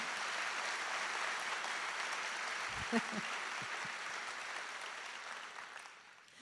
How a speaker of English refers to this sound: And now you can clap.